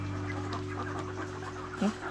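Laying hens kept for egg farming cluck in a low, steady murmur against a constant mechanical hum, with one louder cluck rising near the end of the short recording.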